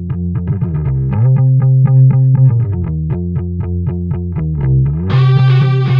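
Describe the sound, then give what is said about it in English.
A short instrumental jingle of distorted, effects-heavy guitar-like tones playing a steady, pulsing rhythm, shifting to a brighter, fuller chord near the end. Loud throughout, with no voices. “Everybody enjoys the Spangler jingle.”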